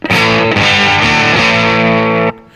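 A heavily fuzzed, overdriven electric guitar, played through a Fuzzy Overdrive sound setting without a preamp, plays a loud, buzzy sustained chord with a few quick changes, then cuts off sharply, leaving a short ringing tail. No voices are heard.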